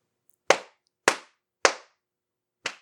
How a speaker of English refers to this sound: That was me slapping my knee.